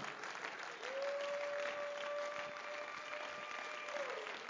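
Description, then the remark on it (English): An audience claps their hands together to Jesus Christ in a dense, steady wash of applause that holds at an even loudness throughout, with a single sustained mid-pitched tone ringing beneath it for most of the stretch. “Oh, let's clap our hands to Him again.”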